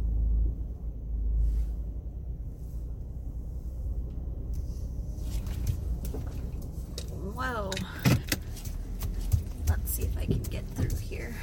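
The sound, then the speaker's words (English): Low, steady engine rumble from inside a car as it slowly backs out of a tight parking spot beside a huge parked truck, with scattered clicks and mechanical knocks building toward the end and a brief rising whine partway through. “back up. This is a really tight spot because it's a huge truck that parked right next to me.”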